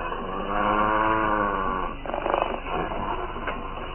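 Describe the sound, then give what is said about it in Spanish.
A low, menacing animal growl rumbles for a couple of seconds in thick fog, then breaks into a rougher, snarling burst before trailing off. It is fairly loud, with no talking. “Oye perfectamente un gruñido amenazador.”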